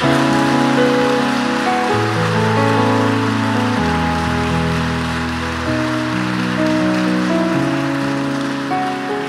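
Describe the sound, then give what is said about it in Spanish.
An audience loudly and steadily applauds the Lord Jesus, a dense wash of clapping that lasts the whole stretch, with sustained keyboard chords shifting slowly underneath and no voices. “Fuerte, fuerte, fuerte ese aplauso para Él.”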